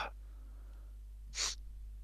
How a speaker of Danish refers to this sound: Det er farligt at nyse ind i mikrofonen.